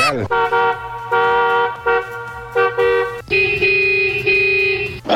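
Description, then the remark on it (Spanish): Car horns honk loudly in heavy traffic on a freeway: a series of short blasts with brief gaps, followed by a long, sustained, higher-pitched honk over a low engine rumble. “Raúl va a 35 millas por hora sobre el freeway, por eso es que hay mucho tráfico.”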